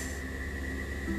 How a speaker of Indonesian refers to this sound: mohon maaf kalau kalian dengar suara yang kurang enak itu suara alam eh enggak enggak enggak itu kan suara alam itu suara kipas sih sama suara apa ya nggak tahu deh suara apa